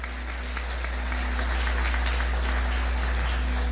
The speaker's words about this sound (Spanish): ¿No te da alegría? ¿No te da felicidad? ¿Por qué no le das un aplauso?